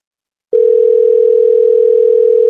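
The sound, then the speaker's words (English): A steady electronic phone tone hums for about two seconds and then cuts off, like a single ringback burst on a call that goes unanswered. It's clear, with no voices. “The guy's not fucking picking up his phone.”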